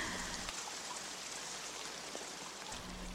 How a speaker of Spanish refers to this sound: Permítete relajar todo tu cuerpo al compás de la lluvia.